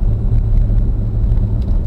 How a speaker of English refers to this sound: Oh, it's nice to be coming back to Wade Road. We got a truck coming from the other direction, so that